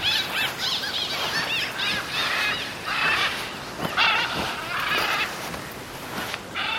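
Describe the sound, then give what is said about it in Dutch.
Macaw parrots on a beach squawking loudly and continuously, a dense overlapping stream of harsh, raspy, high-pitched screeches with no talking. “Zo, wat een drukte maken. Dit is een ara.”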